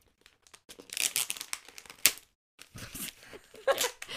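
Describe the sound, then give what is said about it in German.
Taped gift wrapping paper crinkles and rips in several quick bursts as a present is torn open, with a sharp tearing snap in the middle and more rustling and ripping after it, fairly loud. “Kennst du diese Menschen, die einfach jedes Klebebändchen einzeln ja. abziehen und ganz langsam?”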